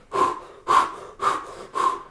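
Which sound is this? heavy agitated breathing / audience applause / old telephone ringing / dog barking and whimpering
heavy agitated breathing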